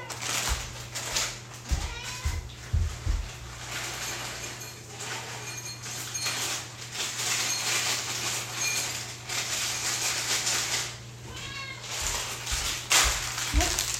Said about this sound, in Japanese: そして私の猫はくなぎであなたはご飯あご飯あげてないねご飯あげけないから猫がうるさいんですわご飯をあげますちょっとまずまず猫にご飯を少々お待ちを。